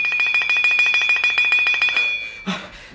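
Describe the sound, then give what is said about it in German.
A pull-cord bell rings loud, a fast steady jangle of rapid strikes lasting a couple of seconds, then cuts off with a brief dull knock. “Zweimal muss der Kaiser von China läuten, bis sein Hofmarschall gnädigst zu erscheinen geruht.”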